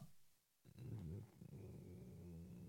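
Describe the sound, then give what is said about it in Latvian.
A cat purrs, a steady low rumbling vibration that starts after a short quiet moment and continues evenly to the end, with no talking. “jo kaķis trūklāk izklausās lieliski.”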